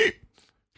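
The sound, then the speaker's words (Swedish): A single short, forceful grunt voiced by a person mimicking a wild boar, loud, followed by a couple of faint breathy noises and quiet. “jag vill vara vildsvin. Det låter så här.”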